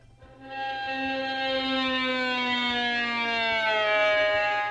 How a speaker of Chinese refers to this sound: 左手的手指头呢，它是按着琴弦，然后这样直接滑下来，这样子的声音就会听到嗯，所以是在同一个弦上面，然后呢从左边滑到右边，类似像这样，这一端呢滑到另外一端